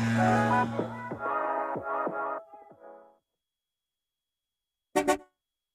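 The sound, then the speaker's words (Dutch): A car horn blares in a long, loud, steady honk that breaks up and fades over about three seconds, then a short double toot sounds after a pause. No one speaks. “Het lijkt alsof je in de, in, de, auto zit. Eh, gaat er een keer ja, toeter.”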